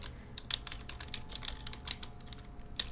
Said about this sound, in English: I'm just going to double check um, as I speak to you. So, pardon the typing.